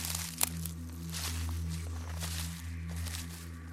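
Several crunchy footsteps scuff along at an uneven pace, walking backward and stepping back into their own footprints, over a steady low droning hum that fills the background. No one speaks.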